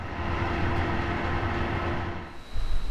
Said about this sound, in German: bewegt die dreieckigen Metallklappen der Verschattung.